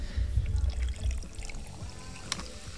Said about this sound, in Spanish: Hay que buscar la palabra que describe el sonido del hielo mientras se le vierte un líquido.